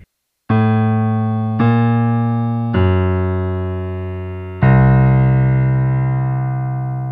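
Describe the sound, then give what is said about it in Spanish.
A four-note piano theme played in a different key: a slow phrase, each note struck clearly and left to ring, with the last note held longest as it fades. Fairly loud, with no voices. “Cuando cambia de tonalidad suena algo así.”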